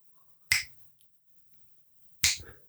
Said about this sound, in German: Wie schnippst du denn? Mit dem Mittelfinger? Ja, natürlich machst du das.